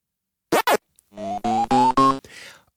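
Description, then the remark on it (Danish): A Pac-Man arcade game sound effect: two quick electronic warbling chirps, then a run of buzzy synthesized tones stepping upward in pitch, ending in a short hiss. Loud and close, with no talking. “Og den mystiske lyd, den kommer selvfølgelig fra Pac-Man-spillet”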